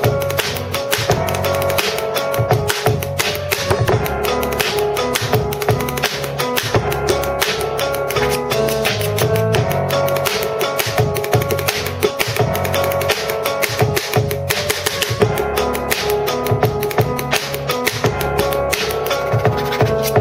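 A hip-hop beat drummed with two pens by young performers from a YouTube channel: fast, dense clicks and knocks on a hard surface in a steady groove, loud, continuing without pause and with no voices.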